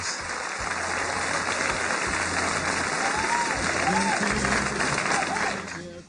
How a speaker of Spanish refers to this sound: Mejor recibamos con un fuerte aplauso a la gran actriz Consuelo Luzardo.